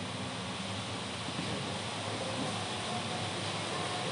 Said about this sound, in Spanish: listo, disculpen, pero está lloviendo muy fuerte y el perro más grande que tenemos en casa estaba en el balcón y se estaba mojando.